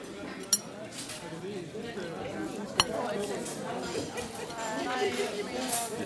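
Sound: cutlery clinking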